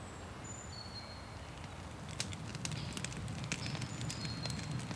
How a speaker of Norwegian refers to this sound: Jeg får nøre opp et lite bål, jeg, da. Ja, du får vel det.